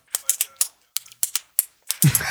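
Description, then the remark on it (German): A ballpoint pen clicks repeatedly, sharp plastic snaps coming in quick pairs and singles, followed by a brief louder rustle at the end. “Das ist ein Kuli.”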